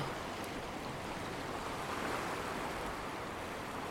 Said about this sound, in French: Tu t'enfonces un peu plus dans l'eau, les vagues te caressent maintenant les genoux, t'apportant une sensation de légèreté et de douceur.